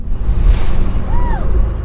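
Waves kicked up by 20-mile-an-hour winds wash over the side of a local lobsterman's boat carrying a team from Islesford to Great Cranberry Island at 20 degrees, in a steady, blustery roar of wind and churning water, fairly loud, with a faint rising-and-falling whistle partway through.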